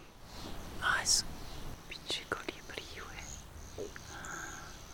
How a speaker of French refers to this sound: Ce qu'on entend, c'est un colibri. J'en avais encore jamais vu. Il est juste en face de moi.